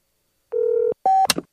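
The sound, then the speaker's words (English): Two electronic telephone dialing tones as someone places a phone call, a longer steady beep followed by a shorter higher one, then a brief crackly click. No one speaks. “Let me put on some bedtime tea and call Rhonda.”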